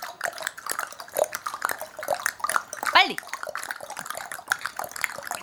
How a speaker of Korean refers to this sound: 네그 다음에 똑딱똑딱 해볼게요. 똑 그쵸 혀를 세게 차보세요.